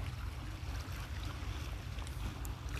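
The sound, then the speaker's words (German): A steady low engine drone from a motorboat heading out far away on the Kiel Fjord hums across open water, continuous and even, with faint lapping water and airy background noise; no one speaks. “Hinter mir ist ein Fußweg und weit draußen fährt ein Motorboot hinaus.”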